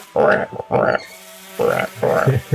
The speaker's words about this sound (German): wie die Frösche und Insekten beginnen dort wieder einzuziehen.